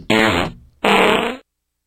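Two loud, buzzy fart sounds in quick succession, each about half a second long with a rough, vibrating low tone, followed by silence. No one speaks.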